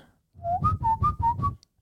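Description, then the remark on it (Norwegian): A person whistles a short run of about six chirpy notes, alternating slightly up and down in pitch, imitating an animal call, likely a bird, with breathy low rumble beneath each note. “i gang med å lage dyrelyder, iallfall.”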